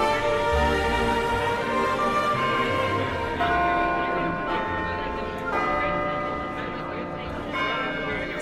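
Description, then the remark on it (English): A deep clock bell strikes midnight slowly and loudly, each heavy stroke ringing on and overlapping the next, with rich metallic overtones that never fully fade between strikes. “Cinderella had a wonderful time at the ball until she heard the first stroke of midnight”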